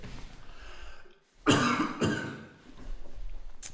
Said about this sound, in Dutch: Ik moet eventjes hoesten. Ja, hoest even.